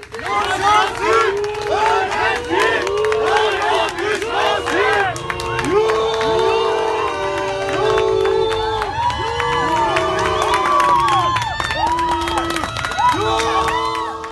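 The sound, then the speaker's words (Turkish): A crowd of students at Boğaziçi University protesting the arrest of two students, with police intervening, shouting and yelling continuously, many overlapping voices rising and falling in loud, rough cries with no pause throughout. “Boğaziçi Üniversitesi'nde iki öğrencinin Kabe resminin üzerine LGBT artı bayrakları yerleştirdikleri ve yere attıkları iddiasıyla tutuklanmasını protesto eden öğrencilere polis müdahale etti.”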